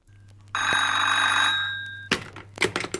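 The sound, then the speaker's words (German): An old-fashioned telephone bell rings loudly in one sustained burst of about a second and a half, then a receiver is picked up with a clatter and handling noises. “Auch die von den Schwierigkeiten beim Telefonieren, in diesem Falle mit Verantwortlichen.”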